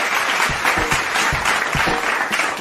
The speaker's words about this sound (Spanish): Gracias, señoras señores. Buenos días, buenas tardes, buenas noches. Gracias, gracias por esos aplausos fingidos.